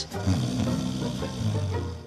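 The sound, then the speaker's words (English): A single long, raspy snore rumbles low and loud for about two seconds, a throaty vibrating drone with no talking over it. “Snoring is easy to laugh at”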